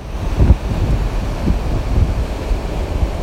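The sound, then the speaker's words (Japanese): Ocean waves wash up at the feet of someone standing on the shore at Enoshima, a steady rushing surf with soft swells and breaking pulses, mixed with low wind rumble across the microphone. No one speaks. “てなわけで今日は、えー、江ノ島からお送りしました、えー、まあね今本当にもう足元に波がこう来てもう危ない状況ですけど”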